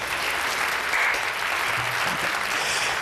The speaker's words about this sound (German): Einen kleinen Applaus bitte.